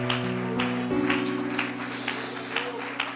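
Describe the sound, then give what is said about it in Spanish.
An audience claps for Jesus Christ in a steady rhythm, roughly twice a second, over sustained keyboard or organ chords. The clapping is moderately loud and blends with the held music throughout. “Alguien lo puede aplaudir en esta hora.”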